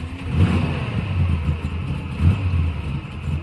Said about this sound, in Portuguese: Tínhamos um Fusquinha, um Fusquinha, um carro comum para aquela época, um carro que muita gente tinha. E como todo bom Fusca, tem aquele barulho característico dele.